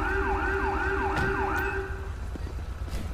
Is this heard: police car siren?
yes